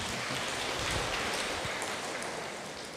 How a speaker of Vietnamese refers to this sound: Rồi rồi, cảm ơn. Rồi, vỗ tay đi.